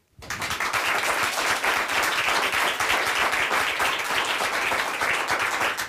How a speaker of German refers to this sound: So, ihr müsst jetzt direkt nochmal klatschen.